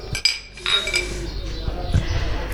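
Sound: glasses clinking together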